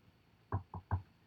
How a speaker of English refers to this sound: I'm knocking on something, bitch.